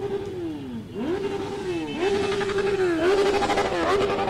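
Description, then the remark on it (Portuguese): A crowd of motorcycles roars past in a street rally (motociata) with President Jair Bolsonaro in Porto Alegre, Brazil, engines revving up and dropping back again and again in a loud, continuous, overlapping drone. “já dá para perceber que a movimentação aqui é muito intensa, tem muito barulho, porque a motocicleta.”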